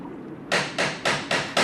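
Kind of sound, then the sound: household object, knocking on a door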